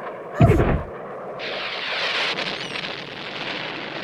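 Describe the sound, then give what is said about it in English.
A projectile explodes in one loud, booming blast with a deep low thump, then a sustained hissing, crackling rush of debris lingers for several seconds. No one speaks. “We hadn't even factored in an extra person and a robot being on site, and the projectile still managed to miss all three of us.”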